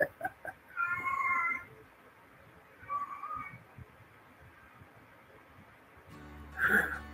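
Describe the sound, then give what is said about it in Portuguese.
A cat meows for food three times at uneven intervals, with a longer first meow, a softer second, and a sharper, louder final one over quiet background noise. “O início foi boa noite, a minha gatinha mesmo daí, querendo comida.”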